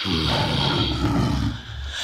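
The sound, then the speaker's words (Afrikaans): A lion, furious, roars loudly, one deep, rough, sustained bellow lasting about two seconds, dipping briefly near the end before swelling again. No one speaks. “Koning Leeu is woedend en hy brul.”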